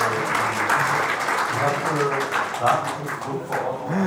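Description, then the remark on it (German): Steady clapping and applause fill the background for a few seconds, with voices talking over it. “Wenn das nicht geil ist, auch mal schön Klatsch ab im Hintergrund.”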